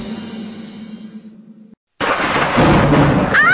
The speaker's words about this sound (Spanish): esos truenos! Maestro, llegaron las lluvias y no hemos impermeabilizado el techo.